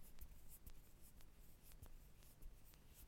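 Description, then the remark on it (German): Fingers rub together, making a quiet, dry rustling with several soft scratchy strokes at an uneven rhythm, imitating the sound of wind blowing through bamboo. No one speaks. “Das ist das Geräusch, das ich mache, wenn ich meine Finger so aneinander reibe.”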